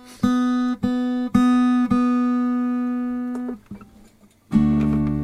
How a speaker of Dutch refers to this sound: Ik ga een heel miniem klein beetje bijstemmen. Deze snaar.